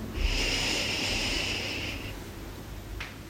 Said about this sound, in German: Wir atmen tief ein